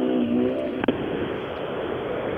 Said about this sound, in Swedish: Det är, det är lite kaos här i målet nu. Det är bilar som ska in på sträckan och bilar som ska ut.